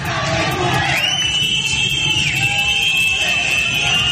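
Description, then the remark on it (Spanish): Dense street crowd noise during protests in the streets of Arak, Iran, on the anniversary of Masa Amini's death, with many overlapping voices shouting, joined by a steady high-pitched whistle or siren-like tone that holds, dips, then continues beneath the loud clamor. “Así sonaban las calles de Arak.”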